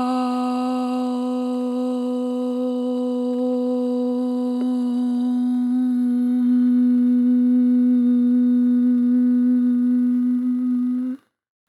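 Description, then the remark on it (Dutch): A single voice chants a long, unbroken "Aum" on one steady pitch, even in loudness. The tone mellows toward a hum as the lips close slowly before cutting off after about eleven seconds. “Dus de drie letters klinken zo.”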